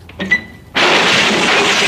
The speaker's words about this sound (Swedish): Det finns en kruka till där uppe på hyllan. Den slänger jag iväg mot Tintin vid dörren.